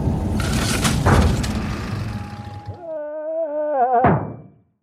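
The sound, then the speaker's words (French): A heavy, muffled thunk lands on the car roof over steady road rumble as the car brushes a tree and something catches on it, followed by a wavering high tone and another sharp knock near the end. “Tu as entendu Nous avons frôlé un arbre et quelque chose s'est accroché à nous. Il s'est retrouvé sur le toit de notre voiture.”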